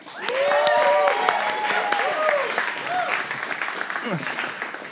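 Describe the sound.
A large church audience bursts into loud applause with whoops and cheering voices rising over the clapping, staying strong for several seconds before easing slightly toward the end.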